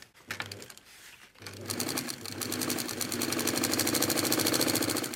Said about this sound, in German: sitzt an seiner Nähmaschine. Durch seine Finger gleiten lange flache Streifen, leicht keulenförmig, in beigen, weißen oder braunen Farbtönen. Es ist Fischleder, also die Haut von Fischen, die er gegerbt hat.